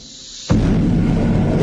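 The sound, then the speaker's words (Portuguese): A single deep explosion boom hits suddenly after a quiet moment, then a loud rumbling roar sustains and rolls on without fading, dominated by heavy low-end energy. “dizem que primeiro tinham nada, pois do nada veio tudo e fez um boom.”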